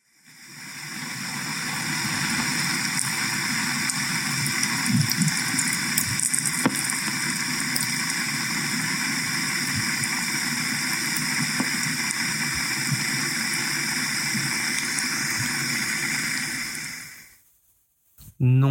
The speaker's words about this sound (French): ce n'est pas votre grand-mère qui cuisine, c'est le grondement du glacier. Mais d'où vient ce fracas